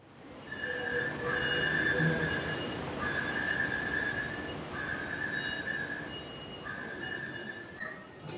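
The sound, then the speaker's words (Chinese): A Taipei Metro train's door-closing warning: a steady, high-pitched repeating tone sounds in four long pulses over constant rumbling rail noise, with no talking. “这个声音是 A 桃园捷运关门提示音，B 台北捷运关门提示音，C 台北捷运到站提示音呢？”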